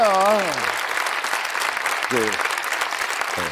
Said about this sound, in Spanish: Han aplaudido los catalanes y luego un público, pues por simpatía también, ¿no?